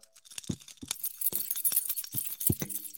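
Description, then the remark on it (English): A bunch of keys jangles, with bright metallic clinks and several sharper knocks scattered irregularly through the shaking, no voices present. “bit of ASMR there for the podcast listeners. It's the keys to winning this game, people.”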